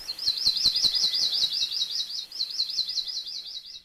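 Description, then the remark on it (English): An akekee, a Hawaiian bird, recorded in the 1970s, sings a fast, continuous trill of high, rapidly repeated notes, steady, lasting several seconds with a faint ticking in the background. “In the 1970s, they sounded like this.”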